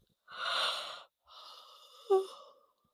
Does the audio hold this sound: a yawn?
yes